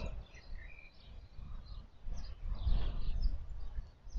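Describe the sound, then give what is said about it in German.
Faint chirps and short song phrases of a bird singing in the background drift through a soft outdoor setting, scattered across a few seconds over low, steady rumbling ambience. “oder einfach nur mal rätseln willst, welcher Vogel hier gerade im Hintergrund singt.”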